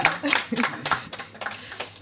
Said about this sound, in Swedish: En, en applåd för det.